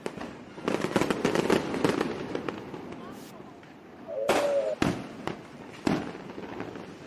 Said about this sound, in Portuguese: Tá vendo? Essa vez eu coloquei fogos, tá vendo? Você vai é ser multado. Vai ser multado. Não pode esquecer, Você vai ser multado, você tá soltando rojão.